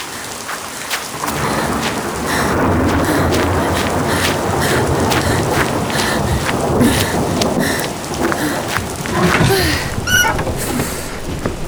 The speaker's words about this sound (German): Der Wind heulte durch die Ritzen, gab ihr das Gefühl, das alte Gebäude könnte jeden Moment weggefegt werden.